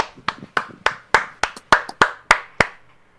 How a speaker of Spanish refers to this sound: Denle un aplauso, camaradas.